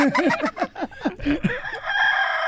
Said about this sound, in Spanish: Me mataron, Ahí está el gallo, paisanos.